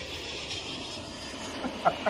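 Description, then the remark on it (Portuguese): A steady, broad roar of an airplane passing overhead, panning from one side of the stereo field to the other, holding fairly even loudness throughout, with a couple of brief brighter blips near the end. “É engraçado, o meu fone, o, o, a zoa do avião começou desse lado e foi pra isso.”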